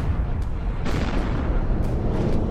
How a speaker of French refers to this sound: Ok, mais qu'est-ce qui réveille le volcan alors Et pourquoi parfois ça fait des explosions